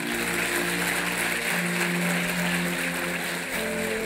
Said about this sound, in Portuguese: Você pode dar uma salva de palmas?